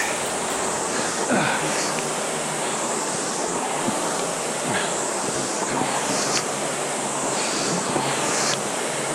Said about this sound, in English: concentrate on really driving with your legs. When I hear that flywheel accelerate,